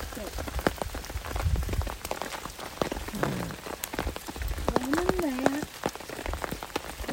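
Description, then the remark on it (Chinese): A steady afternoon rain shower, a typical afternoon thunder shower though with no thunder heard, patters throughout, with many sharp, irregular drop taps over a constant hiss; a few brief, muffled voices surface in the middle and toward the end. “然后这里也有雨，典型的午后雷阵雨。”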